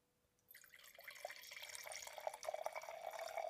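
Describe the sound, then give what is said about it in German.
Wine starts pouring into glasses at about half a second in and runs steadily with a gurgling, splashing stream that grows slightly fuller, with no talking. “Ah, dieser Sound ist so wunderbar.”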